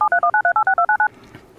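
A quick run of telephone keypad DTMF tones, about ten evenly spaced dual-pitch beeps dialed in rapid succession, loud, followed by quiet.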